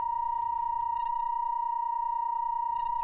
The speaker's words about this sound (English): One sine wave piece ran continuously in his loft for four years between 1966 and 1970.